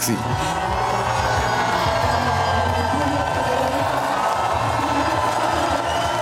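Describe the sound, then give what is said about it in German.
A large outdoor crowd of spectators at the women's Alpine Ski World Cup races at Lenzerheide cheers and shouts continuously, a dense roar of many voices with scattered whoops rising above it, loud and sustained throughout. “Es ist gejubelt und angeführt worden.”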